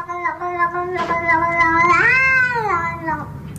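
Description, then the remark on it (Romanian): A British Shorthair cat in a viral video lets out a long, drawn-out meow that rises and bends in pitch, fairly loud, with a short complaining yowl at the start and no talking over it. “E un British Shorthair, un British Shorthair”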